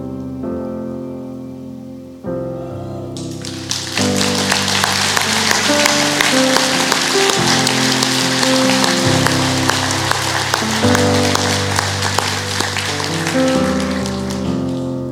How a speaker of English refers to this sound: I don't think anybody new stood up, but we just heard somebody holler, so we started clapping.